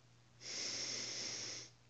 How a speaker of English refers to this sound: Breathing in.